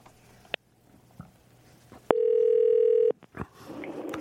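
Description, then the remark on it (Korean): A single steady telephone ringback tone of an outgoing call to a radio listener sounds for about a second, a loud, even mid-pitched hum with buzzy overtones, framed by soft clicks and faint rustling before and after. “3737님한테 전화 한번 걸어볼게요.”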